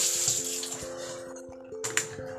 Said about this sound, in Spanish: Estoy aquí lavando los platos.